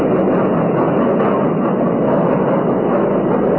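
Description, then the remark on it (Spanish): A steady, loud rumble of a moving train fills the whole stretch, a dense continuous roar with no pauses or distinct clacks standing out, and no voices. “a bordo del ferrocarril en marcha, el extraño señor Smith llegaba hasta su compartimiento”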